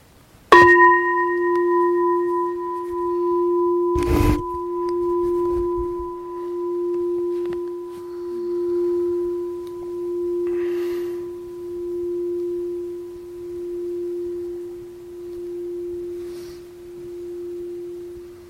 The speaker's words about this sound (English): And we'll start and end with the bell.